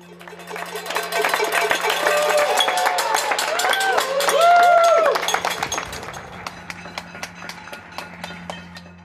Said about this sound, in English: And listen to the sound of the glorious applause in the nationwide tribute to the National Health Service workers in the UK.